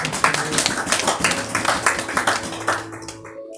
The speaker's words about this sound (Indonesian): Beri tepuk tangan dulu saudara.